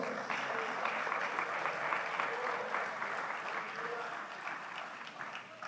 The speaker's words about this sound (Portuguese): E aplauda o Senhor. Dá glória a Deus e aleluia. Aplauda o Senhor.